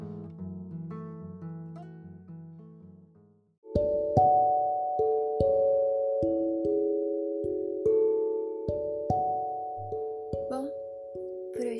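Gentle instrumental music plays alone: soft sustained chords fade out, a brief pause follows, then a louder, brighter melody of bell-like struck notes enters at a steady, unhurried pace.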